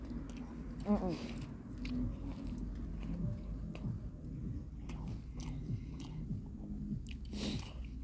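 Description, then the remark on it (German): Someone chews a döner kebab, their first ever, with steady wet, crunchy bites and lip-smacking for several seconds, plus a few low murmured hums mixed in. “sein erstes Mal ein Döner oder so.”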